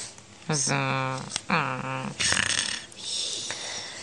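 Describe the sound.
A person imitates loud snoring: two drawn-out, rumbling voiced snores followed by breathy, hissing exhales, exaggerated, with no other talk.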